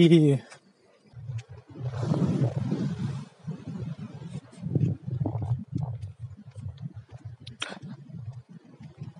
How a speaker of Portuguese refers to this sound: É bem barulhento na praia, né? Mas eu gosto. Eu gosto do som das ondas.